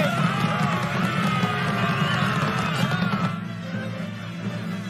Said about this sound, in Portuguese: Eles estão vindo! Eu estou ouvindo os gritos deles!